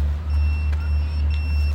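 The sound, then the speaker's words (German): A high-pitched electronic locator beep from a Voi e-scooter, set off by a fleet worker searching for it, sounds faintly and steadily over a loud, constant low rumble like traffic or an idling engine. “So, jetzt haben wir mal den Vorteil, wenn man jetzt nirgends sieht, dann können wir wirklich entweder piepsen lassen, dann hört man ihn irgendwo.”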